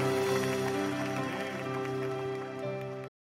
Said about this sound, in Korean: 큰 영광의 박수 올려드립시다.